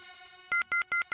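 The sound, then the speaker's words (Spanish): A voice imitates an off-hook telephone tone, holding a steady hum before breaking into four loud, evenly spaced beeping pulses, clear with no talking. “¡Ah, …! Que bien hace de teléfono desenganchado.”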